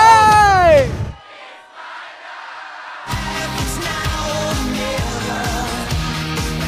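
A concert crowd sings along loudly, a dense wash of many voices over a steady beat, after an opening sustained shout and a moment of near-quiet.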